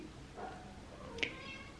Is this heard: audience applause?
no